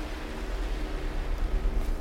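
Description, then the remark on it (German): A steady, rushing wash of Mediterranean Sea waves fills the scene, a broad hiss with a deep rumbling undertone that swells and recedes gently, moderately loud and continuous, with no voices. “Hörst du schon die Wellen des Meeres?”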